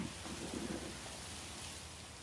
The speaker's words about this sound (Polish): zaczynasz słyszeć, jak deszcz i burza coraz bardziej słabną, a ty z wielkim uśmiechem na twarzy ją żegnasz i zapraszasz do następnego razu.